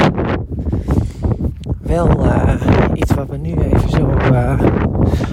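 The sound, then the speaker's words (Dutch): Steady wind buffets the microphone outdoors as the speaker walks outside, a loud low rumble that runs under someone talking for the whole stretch. “Ja, je hoort waarschijnlijk het wind, ik loop buiten.”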